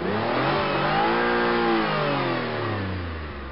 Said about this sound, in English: Car when I accelerate in the car over 50 miles an hour, it gets a little shaky. Shaky. How many miles is on it? Over 110, close to 120.